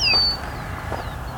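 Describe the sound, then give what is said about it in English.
A killdeer calls in flight at a quarry: a clear, high, thin whistle that slides downward, then a fainter echoing note a moment later, over a low steady outdoor rumble of wind. “killdeer flying around.”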